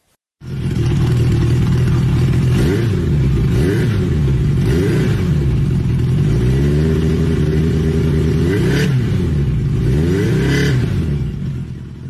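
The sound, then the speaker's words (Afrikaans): A 1980 Honda CB750 motorcycle engine idles loudly, then is revved repeatedly, its pitch climbing and falling in uneven surges before settling back to a steady rumble. “met sy helm in sy hand sê nie maar hy wil gou 'n rit vat op hierdie 1980 CB750”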